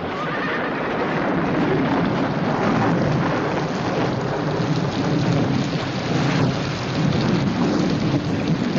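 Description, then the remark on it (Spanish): Heavy rain pours down in a steady, dense hiss that stays loud and unbroken for the whole stretch, with a low rumbling undertone and no voices. “La señora Lowe, empapada por la lluvia, contempla la escena.”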